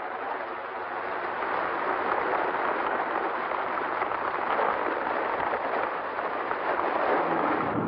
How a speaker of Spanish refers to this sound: Llueve con fuerza.